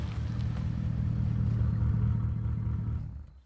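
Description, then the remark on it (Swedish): A silver Toyota's engine hums steadily at a low, rumbling pitch as it drives through Landskrona, fairly loud, then fades out near the end as it slows and parks at an apartment area. “Till slut parkerar den silvriga Toyotan vid ett lägenhetsområde i Landskrona.”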